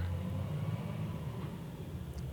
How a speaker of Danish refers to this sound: Sidder nede i min bil, hvor man optager glimrende lyd.